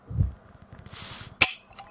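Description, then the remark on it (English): A bottle of smoked beer is opened: a low thud, then a short hiss of escaping gas and a sharp glassy clink, with faint rattling afterward and no talking. “Oh man, not much of a pop. We got a lot of glass uh, clinking there, but let's hope this thing's not uh, Oh yeah, it's pouring.”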